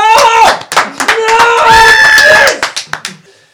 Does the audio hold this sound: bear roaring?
no